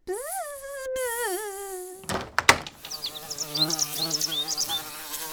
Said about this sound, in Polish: Patrz, pszczoła, pewnie do tych jabłek.